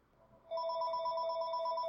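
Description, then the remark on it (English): The speaker's own phone starts ringing abruptly, a steady electronic ring tone holding at an even, fairly loud level, with no one speaking over it. “And there's my phone.”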